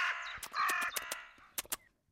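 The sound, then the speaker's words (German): A raven caws in harsh, raspy bursts, two long croaking calls followed by a few shorter ones, fairly loud with no talking. “Oder wie der Rabe, klar.”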